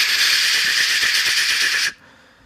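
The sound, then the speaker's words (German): A voice imitates a loud summer chorus of cicadas and grasshoppers in trees and grasses in Virginia Beach on a very warm, humid day, with a sustained, bright hissing buzz lasting about two seconds, then cutting off abruptly into quiet. “Das waren die ganzen Zikaden und Heuschrecken, die sozusagen auf den Baum und in den, in den Gräsern gechillt haben.”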